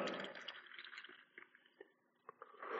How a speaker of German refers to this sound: Ich habe hier ich muss jetzt am Mikro bleiben, ich habe hier einen Krug und diesen Krug, diese Krug, das stellt euch vor, das ist euer Körper. Und jetzt gieße ich da Wasser rein.